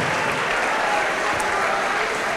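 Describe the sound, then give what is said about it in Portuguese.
A worship audience applauds steadily in praise of God, a dense, continuous wash of many hands clapping at once, fairly loud and sustained throughout with no voices standing out. “Faça como os serafins aplaude e diga: Santo, Santo, Santo é o Senhor dos exércitos.”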